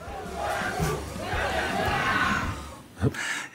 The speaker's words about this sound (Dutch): Eh, Oranje-fans in Indonesië, omdat het land dus zelf niet echt goed is in voetballen, kiezen ze altijd een land om voor te juichen. En dat ze fanatiek zijn, nou, dat zien we hier wel.